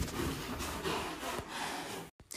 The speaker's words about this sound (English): About once a year my cat Yoko decides that she's fucking hates her sister, um, Cinnamon, and they have pretty much like a standoff, like an old Western, for about two days